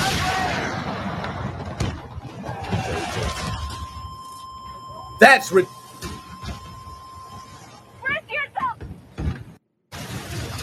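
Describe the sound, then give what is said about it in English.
A roaring engine drone from a video game, cut by a sharp, loud crash-like burst midway as a flying LCAA hovercraft smashes into a helicopter and destroys it, followed by chirpy electronic tones and a man briefly speaking. “This was satisfying killing a helicopter with a flying LCAA hovercraft.”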